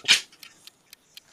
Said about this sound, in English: Time to crack a beer while they're thinking.